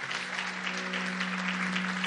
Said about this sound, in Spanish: Y si tú crees que el Señor está en este lugar, dale un fuerte aplauso a Él en esta hora.